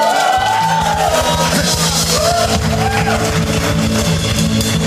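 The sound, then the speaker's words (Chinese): A crowd applauds and cheers loudly and steadily for about five seconds for the day's offering message, with rising and falling whoops and yells cutting through a dense wash of clapping. “我们今天的奉献信息很棒哎，给我们跟如一个掌声好吗？”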